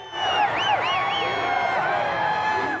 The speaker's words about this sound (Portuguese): Próximo à Casa Branca, uma multidão saudou o comboio que levava o presidente Donald Trump para um campo de golfe.